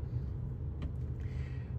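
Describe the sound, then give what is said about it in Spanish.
A steady low rumble of a car creeping through a slow traffic queue on the commute to work, with a couple of brief, faint higher-pitched noises passing over the drone and no voices. “Madre mía del señor, cada día la cola para ir a trabajar es peor.”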